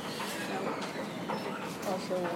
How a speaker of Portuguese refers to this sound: Vocês ouviram um trem parar, não é o nosso ainda.